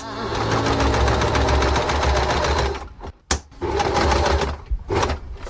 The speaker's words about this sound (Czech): Vážení posluchači, to, co jsme právě slyšeli, je šicí mašina